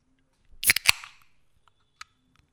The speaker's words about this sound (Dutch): Eh, het heeft vast niks te maken met een eh, ijskoud blikje drinken of zo. Ik trok net even een heerlijk verfrissende cola open. Een blikje.